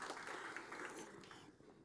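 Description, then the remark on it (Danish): A church audience claps for the Lord during a sermon, a steady, dense wash of applause that is fairly soft, then thins out and fades toward the end. “Yes, giv lige herren en klapsalve.”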